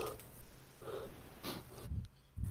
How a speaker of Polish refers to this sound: bardzo e, dychasz do mikrofonu. To był chyba ziew. Muszę zmniejszyć. To był ziew chyba.